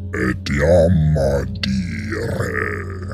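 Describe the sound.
A voice imitates the harsh, guttural sounds of a beaked creature: a few rough, grunting bursts with strained, raspy tones, fairly loud, without any words.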